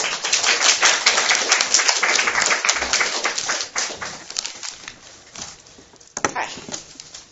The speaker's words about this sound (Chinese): 那么大家掌声呃欢迎两位老师。